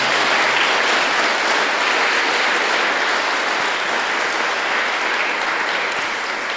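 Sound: loud audience applause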